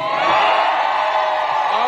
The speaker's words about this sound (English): And then here's this listen to this crowd cheer at the at the Sanders rally.